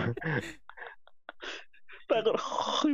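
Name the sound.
imitated snoring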